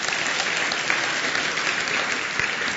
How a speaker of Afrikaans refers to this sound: Gee vir haar lekker hande klap.